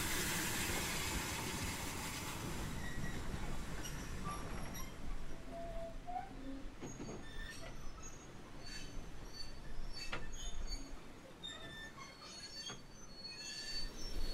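A slow goods train rolls into the platform at Ropley, its heavy steady rumble broken by repeated high-pitched wheel squeals and metallic screeches, with wind blowing through the trees. No one speaks.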